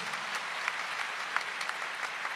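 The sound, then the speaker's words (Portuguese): An audience claps steadily in honour of Pope Saint John Paul II, a dense wash of many hands with a few sharper individual claps standing out, holding an even loudness for the whole stretch. “Dá uma salva de palmas para João Paulo II.”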